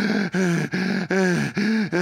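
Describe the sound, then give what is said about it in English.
A voice imitates heavy, ragged gasping for air after 40-yard wind sprints at the end of practice: five quick, loud, voiced breaths in a steady rhythm, breathless, with no talking. “I'm sucking air”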